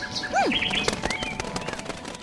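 A bird takes off with a rapid burst of flapping wings, soft repeated thumps fluttering away, while a few high chirps and sweeping whistles sound at the start.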